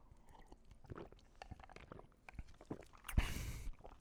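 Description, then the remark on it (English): Ice cubes clink and rattle in a cup of ice and regular water with scattered small knocks, then a short, loud slurping sip near the end, with no talking. “Uh, we we don't have cans uh, tonight, so I've got a cup of ice and uh, regular water. Man, just take a sip.”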